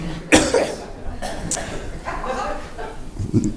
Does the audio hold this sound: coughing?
yes